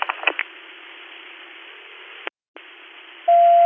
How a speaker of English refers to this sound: Wow, the trackers will be chirping for the next 10 minutes until we cancel that.